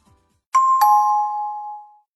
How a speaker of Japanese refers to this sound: 前回のチャイム。